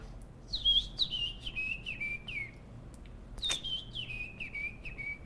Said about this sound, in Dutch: Die echt al vroeg in het voorjaar, dus januari, eh, februari gaat zingen. Dat is De Grote Lijster.